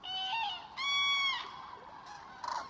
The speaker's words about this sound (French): Un couple de grues est déjà confortablement installé sur le dortoir il claironne.